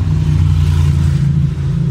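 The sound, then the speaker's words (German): A loud motorcycle engine rumbles steadily outside, its deep throbbing drone holding an even level throughout with no voices. “Kannst mir nicht erklären, dass deutsche Ingenieurstechnik nicht in der Lage ist, ein leises Motorrad zu bauen.”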